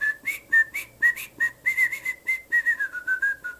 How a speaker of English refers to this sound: Can you do the little whistle like that?